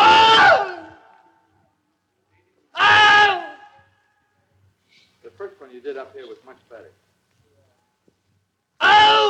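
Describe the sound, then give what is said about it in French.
An actor lets out three loud, anguished cries of pain in the original recording session of the Wilhelm scream, each short, spaced several seconds apart, with a brief stretch of someone talking between the second and third. “et puis le directeur de la séance lui dit Non, non, pas un oh, un vrai cri de douleur.”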